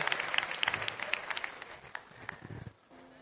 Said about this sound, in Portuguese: Aplausos para ele, gente.